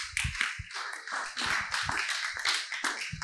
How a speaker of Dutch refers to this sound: Gaat u zitten. Applaus voor deze mensen.